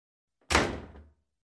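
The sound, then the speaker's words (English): A door shuts with a single solid thud, followed by a brief rattling decay as it settles, heard alone. “Then close the door.”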